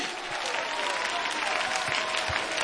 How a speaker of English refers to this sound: Dear Lord, somebody clap your hands, stomp your feet.